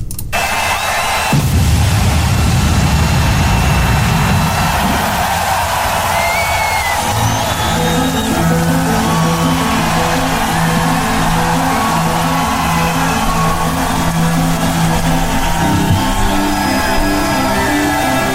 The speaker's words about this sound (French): Ben, on s'entend que c'est le début d'un show d'un certain band. Ben oui, ben oui, c'est le début de show de ….